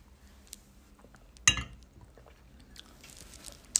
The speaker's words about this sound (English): But let's take a sip of my grape juice again.